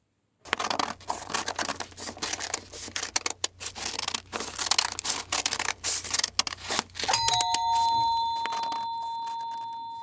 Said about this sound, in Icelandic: við ætlum að gíska á þess að vera að klippa pappir. Alveg hár rétt. Það er verið að klippa pappir.